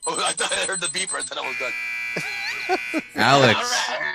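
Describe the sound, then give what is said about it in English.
A high-pitched electronic beeper signals that bacon is ready, sounding one steady, sustained tone lasting a couple of seconds, while people keep talking loudly over and around it. “That's the sound of my bacon ready, by the way.”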